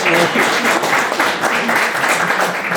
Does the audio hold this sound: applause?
yes